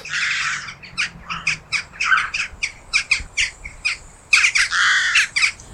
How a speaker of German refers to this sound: Also wenn man in Wien Dohlen beobachten möchte, dann sollte man in der Dämmerung zum Angelibad gehen. Da sieht man dann die Dohlen einfliegen, eben in großen Gruppen und das ist sehr spektakulär